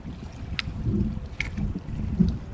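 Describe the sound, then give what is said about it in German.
River water rushes steadily with a low, windy roar, broken by a few brief splashes. It is fairly loud, and no one speaks. “Dazu noch das, das äh, Meeresrauschen ist es ja nicht. Das Flussrauschen.”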